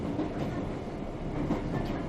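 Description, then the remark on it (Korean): A subway train rumbles steadily along the rails, a dense, continuous low clatter with no voices. “다시 지하철을 타고 문 앞에 서서 큰 꽃무늬 원피스 펄럭이며 바람을 맞고 서 있다가”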